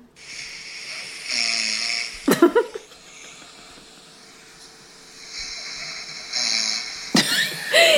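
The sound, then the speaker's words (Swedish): A person snoring in their sleep, two drawn-out raspy breaths each ending in a loud, abrupt snort, spaced about five seconds apart, with no talking. “För att i många år har du och jag diskuterat om du snarkar eller inte och varje gång så säger nej jag snarkar inte, jag snarkar nej, inte.”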